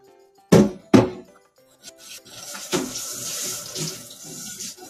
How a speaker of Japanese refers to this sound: 今まあこれちょっとあの鍋とかね、今洗ってるんですよ、使った道具を。